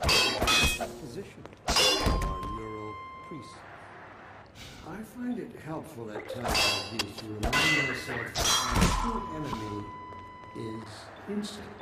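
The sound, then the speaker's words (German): Several sharp metallic clangs of a video game crowbar striking metal, as when swatting headcrabs, each leaving a bright ringing tone that hangs briefly. Voices talk between the loud hits. “Also dieses Klong auf Metall und dazu dieses wenn du damit irgendwie.”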